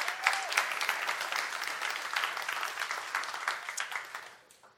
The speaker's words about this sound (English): And uh, just give him a round of applause for being your pastor.